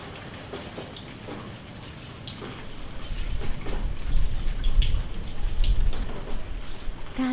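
Steady rain falls with a dense, hissing patter of drops, starting softer and swelling louder after a few seconds, continuous throughout with no voices.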